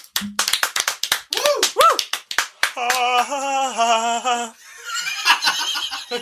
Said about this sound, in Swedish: Ja, vi ger en liten applåd där tycker jag faktiskt.